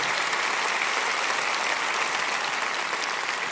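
An audience claps steadily, a dense, even wash of many hands with no pauses, sustained at a fairly loud level throughout.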